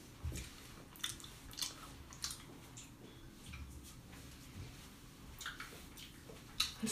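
Someone chewing jelly beans, with soft, irregular wet smacks and clicks repeating every half second or so, fairly quiet and sticky-sounding, with no talking.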